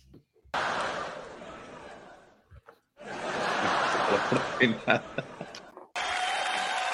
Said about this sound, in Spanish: Por Una forma de respeto al público, este programa sí tiene risas grabadas.